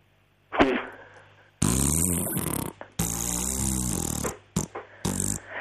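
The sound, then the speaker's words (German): A horse farting loudly: a short puff, then two long, rasping, flapping blasts, followed by a few brief sputters. No one is talking. “Nee, weißt du, ich weiß jetzt, warum es nur gefurzt hat. Warum? weil man das Plumps nicht gehört hat beim Landen.”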